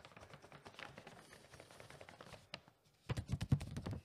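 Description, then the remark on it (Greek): Crinkly rustling of a gift bag being handled while unboxing a mystery gift, with dense scattered crackles that grow louder and busier toward the end; no one speaks. “Έσκασε αυτή εδώ η σακούλα.”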